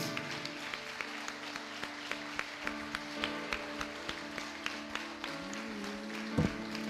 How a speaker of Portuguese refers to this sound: Você pode aplaudir Jesus mais uma vez.